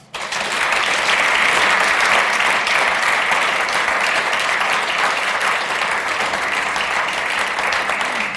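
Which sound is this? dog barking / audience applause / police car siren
audience applause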